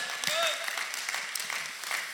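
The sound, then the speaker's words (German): Steady audience applause for the newly founded Ansbach and Erlangen locations, a dense crackle of many hands clapping at once, with a couple of brief whoops or cheers rising over it near the start. “Ja, komm auch nochmal einen Applaus für die Standorte, die wir in dieser Zeit gegründet haben.”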